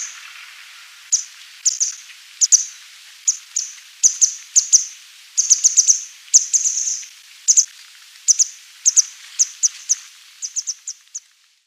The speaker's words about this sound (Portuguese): vamos escutar os sons de algumas aves que cantam nos nossos jardins. Alvéola cinzenta,